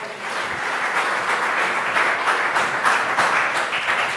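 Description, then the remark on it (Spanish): A crowd applauds the Lord steadily, many hands clapping in a dense, continuous wash of sound that stays loud and even for several seconds with no voices over it. “Dele otro aplauso al Señor, por favor.”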